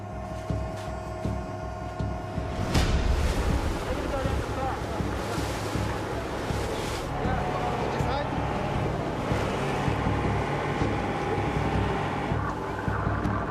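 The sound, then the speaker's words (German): Steady roar of rising wind and rough water around a boat, with ever-higher waves slapping and surging and a low engine hum underneath; the noise swells after a few seconds and stays loud. “Wind kommt auf und die Wellen werden immer höher.”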